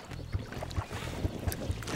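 A rowboat being rowed across lake water up to a gas bubble trap, with steady low knocks from the oars about twice a second over a constant wash of water and light wind, with no voices.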